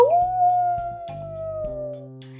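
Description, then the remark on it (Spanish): A voice imitates a long, deeper wolf howl as the wolf characters drive off in the stolen Cat-mobile, sliding up at the start and then holding one steady note for about two seconds over quiet background music. “Y con un aullido más profundo emprendieron la marcha el gato móvil.”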